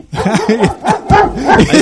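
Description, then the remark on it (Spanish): A dogfight sound effect: loud snarls and yelping barks come in quick overlapping bursts, about four or five sharp rising-and-falling cries packed into a couple of seconds. “hay, pelea, hay pelea de perros.”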